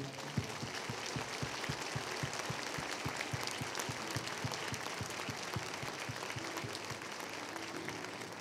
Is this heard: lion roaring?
no